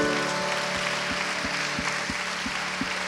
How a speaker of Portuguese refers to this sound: Você gostaria de oferecer um aplauso ao Senhor?